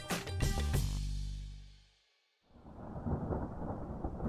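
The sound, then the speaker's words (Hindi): A loud thunderclap cracks and rumbles for about two seconds, fades to near silence, then steady heavy rain and strong gusting wind rush in, continuous, on a rainy night of 24 June 2018. “24 जून 2018 बरसात की रात थी हवाएं बहुत तेज चल रही थी”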